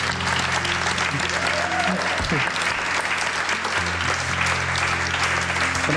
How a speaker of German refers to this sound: Herzlichen Dank allen, die zugelassen haben und natürlich auch herzlichen Dank euch als Publikum. Fantastisches äh, Publikum. Fantastisches Danke vielmals. Publikum, genau. Applaus von uns.